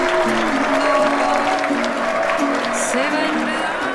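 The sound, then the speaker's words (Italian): Steady, dense applause from a crowd as a singer is introduced fills all four seconds at an even loudness, with scattered voices calling out beneath the rapid clapping. “Un grande applauso.”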